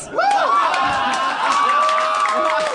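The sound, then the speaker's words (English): A group cheers loudly for a few seconds, a steady wash of excited voices with higher shouts and drawn-out whoops rising above the crowd noise. “Why are you cheering that?”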